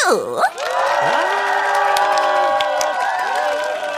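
children cheering

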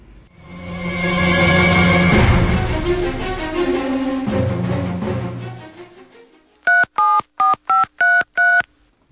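telephone being dialed

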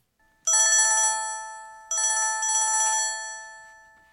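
telephone ringing

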